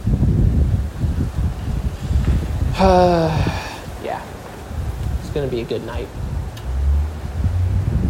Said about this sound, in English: I don't know how much of this you guys can hear. Try not to be too loud out here in the condo. I have my face right in front of the microphone, but it's really windy.